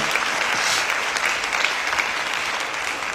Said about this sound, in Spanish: Si usted lo cree, déle un aplauso al Señor, por favor